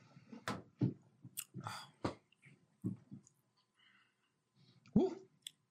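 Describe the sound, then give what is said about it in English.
Loud crunching of someone chewing a bowl of Captain Crunch cereal, a run of irregular crisp bites over several seconds, ending with a brief murmured mouth sound. “I've never had all three Captain Crunch cereals in one sitting.”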